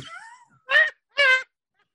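Two loud, drawn-out cat yowls, each about a quarter second long with a short pause between, following a fainter wavering cry at the start. Nothing else can be heard.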